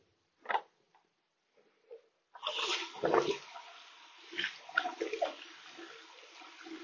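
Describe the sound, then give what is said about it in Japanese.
A brief tap, then continuous crinkling and rustling of paper being handled and set in place, with louder scrapes and shuffles rising and falling over several seconds, no voices. “今、あの、紙セットしてるんで、えー、雑音が、すごい入ってるかもしれないですけど”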